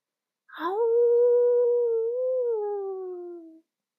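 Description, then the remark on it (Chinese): A single long wolf howl rises sharply, then holds a steady tone for about three seconds before sliding gently downward and fading out. No talking, nothing else around it. “可是狼嚎明明在耳边一遍又一遍的响起呀。”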